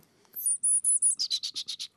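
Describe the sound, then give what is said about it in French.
A person imitates a great tit alarm call, made between the teeth: four high, thin whistled notes followed by six quicker, slightly lower shrill pulses, fairly loud, with no talking. “Je vous fais un autre son de la maison charbonnière.”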